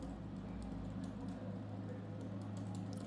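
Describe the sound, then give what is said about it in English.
Soft, irregular keyboard typing, a scattering of light clicks over a steady low electrical hum, fairly quiet with no voices. “Tell you what, it's hard typing out things with an ADHD brain whilst simultaneously trying to think about that point.”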